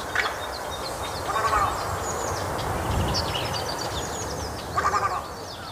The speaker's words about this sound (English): And as they dance elegantly, you can see their yellow feet flashing as they chase the fish and the shrimps. So it's an ideal bird for our tweet of the season today, Little Egret.